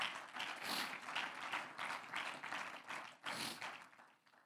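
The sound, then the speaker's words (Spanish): A crowd applauds the Lord with steady, dense clapping that swells and dips in waves for several seconds, then begins to fade out toward the end. “Un aplauso al Señor.”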